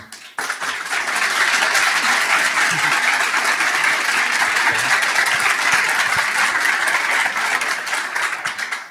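A crowd bursts into sustained applause, a dense wash of many hands clapping at steady loudness for several seconds before tapering off slightly at the end. No voices are heard.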